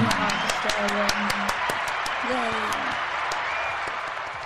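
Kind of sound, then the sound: crowd, applause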